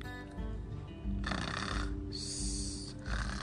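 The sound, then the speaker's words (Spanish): A sleeping wildcat, stuck in an egg basket, snores with about three rasping, breathy snores in a slow steady rhythm over a low rumbling undertone. No one speaks. “Al rato, cansado de los inútiles esfuerzos por liberarse, el felino se durmió.”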